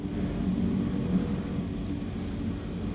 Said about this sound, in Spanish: Caminar en vez de coger el coche, la bici, el metro o el helicóptero que está pasando por al lado de mi casa.